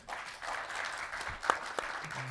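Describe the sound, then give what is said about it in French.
An audience at a live show applauds steadily as a panelist is introduced, a dense wash of many hands clapping at moderate volume, with a few sharper individual claps standing out near the end. “Autour de moi, avec de vigoureux aigles de la route, Stéphane Moïsakis, que je vous demande d'applaudir bien fort.”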